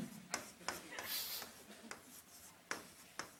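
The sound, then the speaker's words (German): A pen scratches across paper, crossing out the written German word 'hinterfragen' (to question) with a few quick, sharp strokes and one longer rasping scribble, quiet and without any voices. “Und das darfst du jetzt einmal, so wie ich, durchstreichen.”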